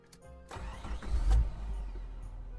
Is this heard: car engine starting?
yes